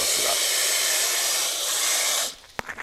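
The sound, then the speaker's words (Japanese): A large pot of water heating on a stove to cook spaghetti gives a steady, loud roaring hiss for about two seconds, then it drops away, followed by a sharp click and a few faint rattles. “まあ音を聞いてお分かりのように大量のお水をですね沸かします”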